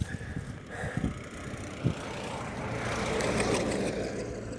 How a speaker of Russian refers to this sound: Ну, я иду сейчас по проселочной дороге, сегодня решил сменить маршрут, и несется машина с прицепом. А тут пыльная дорога, и пыль стоит столбом